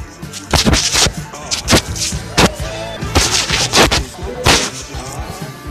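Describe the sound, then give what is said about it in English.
Loud, heavy banging on a door, a string of about nine hard thuds in uneven bursts, some landing in quick pairs, with faint voices in the background. “Why are they banging on the door like Looking for who?”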